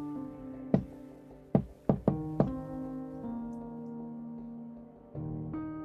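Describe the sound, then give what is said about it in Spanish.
Five sharp knocks land in a quick, uneven burst, two close together in the middle, over a steady low droning tone that carries on after the knocking stops. No one speaks. “El toquido me heló la sangre.”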